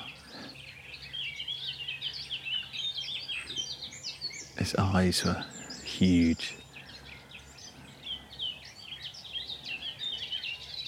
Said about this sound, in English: and I rather think it's the same sort of sense as when I first heard a nightingale. It's a shame this one didn't read the script and continue singing as I was talking.